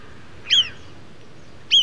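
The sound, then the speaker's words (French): Two sharp, high-pitched marmot alarm whistles, given when danger is near and audible up to a kilometre away, each a brief piercing call, spaced about a second apart over a quiet outdoor background with no voices. “Là, elle sent que le danger est proche, car elle pousse son cri d'alarme. C'est un sifflement spécifique qu'on entend jusqu'à un kilomètre à la ronde.”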